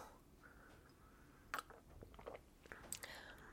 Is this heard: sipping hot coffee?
yes